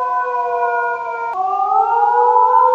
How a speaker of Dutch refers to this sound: het drong al gauw op mij door dat het alleen maar een wolf kon zijn die reageerde op mijn huil.